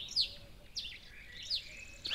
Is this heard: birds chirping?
yes